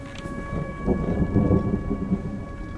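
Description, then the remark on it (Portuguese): A low, rolling rumble of thunder from a summer rainstorm at midday swells through the middle, layered over steady rain hiss and faint constant tones, with no voices present. “No fundo começa a se armar uma, uma chuva, uma, mais uma chuva dessa época de verão.”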